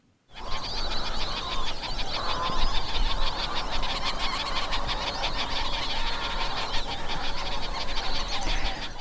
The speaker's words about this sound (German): Also so klingt der Salinau, wenn Wasser drin ist und wenn Vögel dort sind. Äh, das habe ich 2018 aufgenommen.